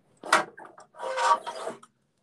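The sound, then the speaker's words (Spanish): Many chairs scrape and drag across the floor in two noisy bursts as they are moved to set up for a recording: a short rough scrape followed by a longer grinding one, with no one talking. “Entonces sí, moviendo chingos de sillas para poder grabar.”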